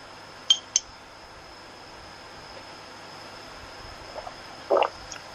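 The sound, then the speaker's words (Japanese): Two quick, bright clinks of glasses of an apple drink touching in a toast, a fraction of a second apart, followed by a few soft handling noises in quiet. “乾杯。”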